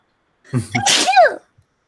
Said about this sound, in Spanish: Voy a estornudar.